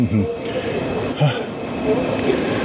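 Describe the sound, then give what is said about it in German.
Busy train station platform ambience where a train to Bremerhaven departs at 10:56: a steady wash of crowd murmur and indistinct voices with faint rail rumble underneath, continuous throughout. “Ich hoffe doch von dem Gleis hier, wo ich jetzt stehe.”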